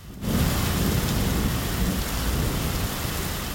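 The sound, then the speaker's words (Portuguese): Heavy rain pours down in São Paulo in a steady, dense roar, with deep rumbling thunder rolling underneath throughout. No one speaks. “Desse outro bairro, duas casas e dois carros foram atingidos por uma árvore de grande porte que caiu e derrubou os fios de energia durante a chuva.”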